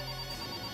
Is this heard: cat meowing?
no